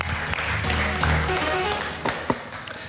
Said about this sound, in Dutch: En weer zo'n leuk applaus.